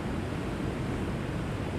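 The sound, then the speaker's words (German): Glacial meltwater from the Rhône Glacier rushes loudly and steadily at the source of the Rhône, a dense, constant roar recorded with the microphone as close as the terrain allows, with no pauses or voices. “Das Gelände lässt es nicht zu, dass wir neben der Quelle stehen können. Wir gehen mit dem Mikrofon so nah heran wie möglich.”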